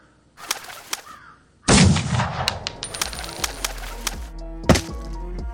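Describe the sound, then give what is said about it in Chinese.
Two light clicks, then a loud pistol gunshot blast that rings and fades; the shot hits a crow flying past, which flaps its wings and struggles dying on the ground. Scattered sharp cracks and thuds follow, one standing out near the end. No one speaks. “一只飞过的乌鸦中弹，扑腾翅膀，开膛破肚，在地上垂死挣扎着。”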